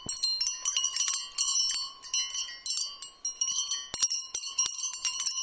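Glass rods chiming in a busy, continuous cascade of bright, high ringing tones, struck repeatedly in overlapping bursts with a steady faint hum underneath and no voices.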